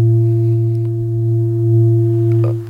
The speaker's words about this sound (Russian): тибетская поющая чаша. Да, я еще раз ее активизирую, чтобы наши радиослушатели услышали эту потрясающую частоту. Я надеюсь, это слышно. Мне кажется, я слышу даже чувствую вибрацию да, через микрофон.